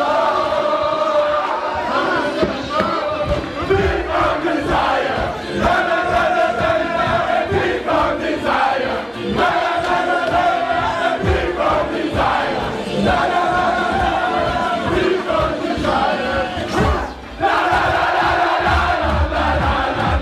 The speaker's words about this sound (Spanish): Aquí vamos a escuchar ahora la celebración de la selección francesa en el vestuario tras ese pase a la siguiente ronda. Lo escuchamos ahora.